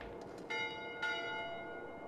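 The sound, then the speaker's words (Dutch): A clock bell strikes twice, about half a second apart, each stroke leaving bright, ringing overtones that hum on afterward over a faint steady background hiss, with no voices. “De klok sloeg zes keer toen ze nog maar een paar stokjes over had.”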